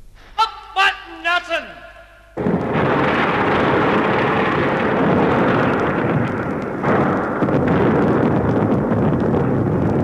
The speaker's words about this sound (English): Yes, a massive explosion had brought the statue of Nelson and the upper part of the pillar crashing into O'Connell Street.